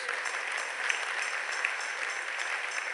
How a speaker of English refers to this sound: so, these men and women that God is using, I think we need to clap our hands to the Lord Jesus.